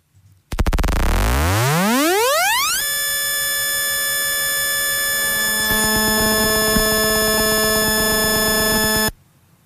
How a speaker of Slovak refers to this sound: bolo to vlastne veľmi rýchly sled kratučkých impulzov, ktoré vlastne počujeme my ako pískanie